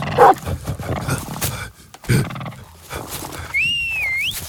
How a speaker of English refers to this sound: Back off, mutts. Hey, get, get a hold of your dogs.